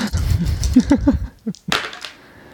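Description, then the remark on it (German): Dice rattle and tumble across a hard surface, a quick run of small clicks followed by a couple of sharper knocks as they settle, fairly clear. “Ein Pasch. Dann darfst du nochmal würfeln.”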